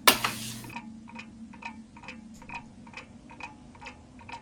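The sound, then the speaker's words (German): A clock ticks steadily in an even, regular rhythm, around ten crisp ticks at moderate volume, following a short burst of loud noise at the very start. “Tick, tack, tick, tack.”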